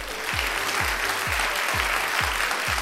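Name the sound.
applause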